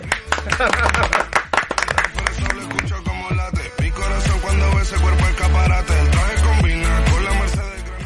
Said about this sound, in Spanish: Un aplauso para ….